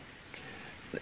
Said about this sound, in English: It's uh if you can hear anything here uh in the background, it's rain because there's rain hitting the cabin roof. So it's very therapeutic for me, but hopefully it's not too distracting for everyone else.